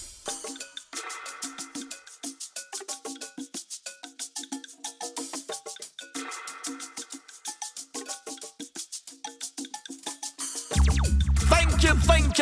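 A reggae track plays with a steady, choppy rhythm of bright percussive hits and chords, then near the end a heavy bass and fuller, louder arrangement kicks in. No one speaks.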